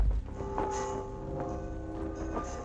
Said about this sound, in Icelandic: Kirkjuklukkum var hringt um all land í tvær mínútur